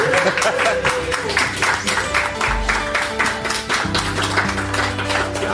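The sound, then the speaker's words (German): Sustained applause from a live audience aboard Symphony of the Seas, dense rapid clapping that stays loud and steady throughout, with a low tonal hum and some crowd noise underneath. “Äh, und wir hatten auch ein Publikum, das die ganze Zeit unglaublich still war, aber jetzt ist mal Ende mit Stille.”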